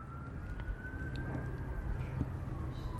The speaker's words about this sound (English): Yeah. I don't know what you're going to do with all the sirens in the background.